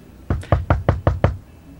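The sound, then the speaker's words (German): Six quick, evenly spaced knocks on a wall, knocking on the other wall for comparison, fairly loud, each a dull thud with a sharp attack, followed by quiet. “Ihr klopft da nochmal an die andere Wand. Es hört sich genauso an.”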